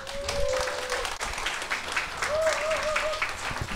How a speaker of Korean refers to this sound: 박수로 모시겠습니다